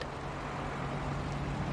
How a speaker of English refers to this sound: Listen to their engine sound.